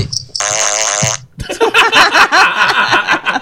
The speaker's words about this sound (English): That was a triple fart.